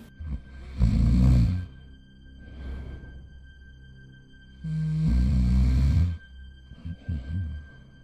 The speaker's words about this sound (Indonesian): terus tiba-tiba ada suara ngorok lagi